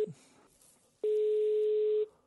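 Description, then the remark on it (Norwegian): A phone line's ringback tone: a single steady, one-second electronic tone that stops, then quiet line noise. The tail of an earlier tone is just audible at the very start. No one speaks. “Uh, men hvis jeg legger på nå, ringer opp igjen, da skjønner han det ikke en selger.”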